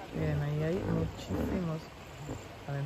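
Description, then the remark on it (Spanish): A hippopotamus in a river at sunset calls out in a run of deep, resonant honking grunts: three loud bursts, then a short final one. “Vamos a ver si vemos los hipopótamos porque yo los oí.”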